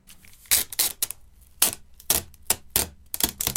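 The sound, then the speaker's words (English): Sticky tape (sellotape) being pulled off a reel in a series of short, crackly rips, about seven quick tearing bursts with brief pauses between, fairly loud, no voices. “Yeah, it's pulling sticky tape, sellotape, off the reel.”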